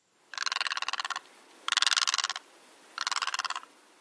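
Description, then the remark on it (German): Three loud bursts of harsh, rapidly pulsed rattling calls, each lasting under a second with short pauses between, from a great egret, with no talking. “können wir einen Vergleich zum Silberreiher machen und hören uns mal an, wie der sich anhört.”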